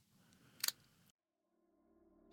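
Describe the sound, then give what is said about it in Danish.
A single small, sharp snap of a wooden matchstick breaking as a man steps on it in a kitchen, quick and faint against a soft background rustle, followed by near silence and a low steady hum. “En svag lyd af noget træ, som knækker.”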